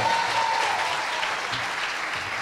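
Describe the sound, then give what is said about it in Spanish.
A crowd applauds steadily, a dense wash of overlapping claps at a constant loud level for a couple of seconds, with no voices standing out. “Eh, un aplauso, por favor.”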